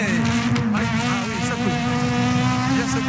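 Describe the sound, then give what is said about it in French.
The engine of a Renault Clio Maxi rally car drones loud for a few seconds as it races over gravel near Morzine, its pitch rising and dipping, with a rough, continuous rumble underneath. “sur la grille, il m'avait prévenu, la voiture arrive.”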